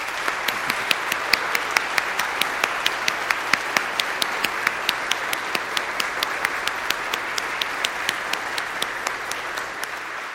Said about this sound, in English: And so I would like you to give a big hand of applause for your dean and the great work that he's doing for you.